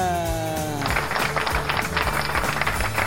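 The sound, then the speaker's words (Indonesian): A short falling tonal sweep gives way to a dense, steady burst of applause from many hands, running over a low rhythmic beat until the end. “Ada tepuk tangan tangannya dong.”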